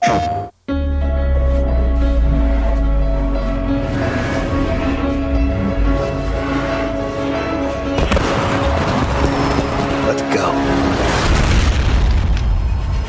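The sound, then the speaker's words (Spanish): Loud cinematic video game trailer audio from the PlayStation 5 reveal event: deep booming hits and heavy low rumble beneath sustained, droning musical tones, building continuously without any speech. “Vamos a escuchar esto perteneciente al evento de presentación de PlayStation 5.”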